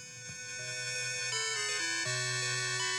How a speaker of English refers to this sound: You're going to recognize this if I play the uh, the old classic MIDI music.